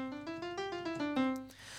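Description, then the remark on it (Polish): The Microsoft GS synthesizer built into Windows, a General MIDI piano sound, plays a quick run of about eight notes, each struck in a steady rhythm around the midrange, ending on a longer held tone that fades out. No one speaks. “Można o nim różne rzeczy powiedzieć, ale na pewno nie to, że jest e, fajny, chociaż we fortepianie brzmi tak.”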